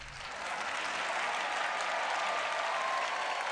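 A large crowd gives a standing ovation, clapping steadily and densely, the applause swelling quickly and holding at a full, even roar for several seconds, with a faint whistle cutting through near the end.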